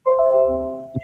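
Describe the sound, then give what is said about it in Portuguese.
A Windows computer system notification sound: a single clear electronic chime with bright tonal layers that rings out and fades over about a second, ending with a soft low thump, no voices. “É de Windows.”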